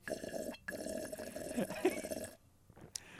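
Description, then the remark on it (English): Someone gulps water in a wet, gurgling stretch lasting a couple of seconds, then it falls quiet apart from a brief faint noise near the end. “did you spill water all down yourself?”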